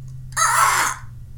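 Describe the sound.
A person voices a single harsh, screechy bird call, loud, lasting about half a second over a faint steady background hum.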